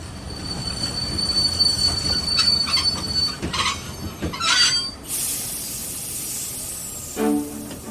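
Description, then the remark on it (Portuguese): A train rolls into the central station and brakes, wheels squealing with a sustained high-pitched whine over low rumbling, then a loud burst of air hiss as it comes to a stop. “Para, para, para, que chegamos aqui na estação central.”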